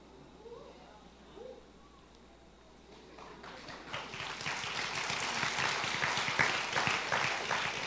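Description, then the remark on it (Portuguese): After a few seconds of faint murmuring voices, scattered hand claps begin and swell into a steady, moderately loud round of applause that continues to the end. “Tá tenso aqui, até salva de palmas é assim, tipo.”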